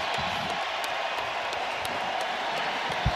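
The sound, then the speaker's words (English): A large 49ers stadium crowd gives a standing ovation to a retiring football player walking off in his presumed final game, against the Arizona Cardinals: a steady, dense roar of applause and cheering with scattered sharp claps, holding at an even loudness with no voices standing out. “Getting a standing ovation here walking. Yeah, this is nice from this 49er crowd.”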